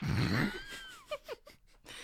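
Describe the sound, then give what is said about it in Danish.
A forceful blast of air out through the nose with the mouth closed, lasting about half a second, trailing into a faint whistling tone and a few soft breathy snuffs, as someone tries to blow out something stuck up the nose. “Prøv, prøv, øh, prøv at puste ud. Luk munden og puste.”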